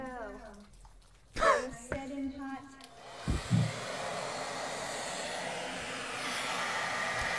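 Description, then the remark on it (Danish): A hair dryer held up to a snowball by a woman switches on after a few seconds of talking and blows with a steady, loud whooshing roar at the snowball, which does not melt, continuing without a break to the end. “det I hører lige nu, I til jer, der hører podcasten, det er, at øh, hun holder en øh, hårdtør op til snebolden, og, øh, og den smelter ikke.”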